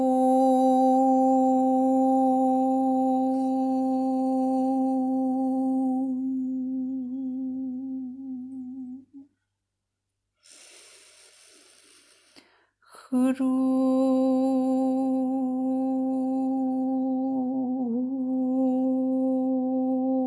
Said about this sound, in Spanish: Mantén esta visualización y siente cómo se entremezclan los dos mientras cantas la letra sagrada Hrum todo el tiempo que tu respiración pueda sostenerla.